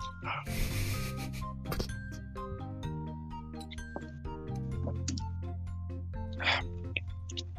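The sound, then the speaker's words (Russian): Someone takes a quick shot of strong liquor: a light glass clink, a short gulp and a sharp breathy exhale, over a steady hum of background music. “Так вот, в общем и целом, господа, давайте, э, я теперь уже выпил, поэтому теперь вы можете выпить.”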